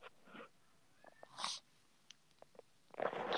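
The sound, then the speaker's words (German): A cat makes a few faint, short noises, scattered brief puffs and clicks, ending with a slightly louder breathy burst. No one speaks. “Die Katze hat man gehört.”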